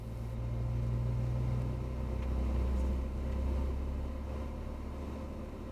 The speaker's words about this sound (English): Each manufacturer wants its car to sound unique. On this computer screen, frequencies can be enhanced or reduced to change the sound of the car.